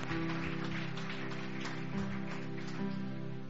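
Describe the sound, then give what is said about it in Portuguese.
A church audience claps steadily in applause to God, a dense, even wash of many hands with no break, holding a sustained backing tone beneath it, no voices standing out. “E dá uma salva de palmas a Ele. Mas se é para aplaudir, vamos aplaudir direito.”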